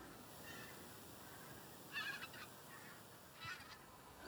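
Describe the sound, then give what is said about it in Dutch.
Migrating white-fronted geese passing over at night give high-pitched, yelping calls, with a few brief bursts rising over a steady low wash of background noise. “en dan hoor je ook gelijk de koolganzen, hè? die hebben dat hogere geluid. Ja, dat hoge zingerende geluid hoor je nu.”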